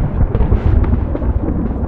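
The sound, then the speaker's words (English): A deep, continuous thunder rumble rolls steadily for about two seconds, loud and heavy in the low end with crackly texture on top. No one speaks. “And even though it's very sunny outside, I'm going to do a little a little thunder sound.”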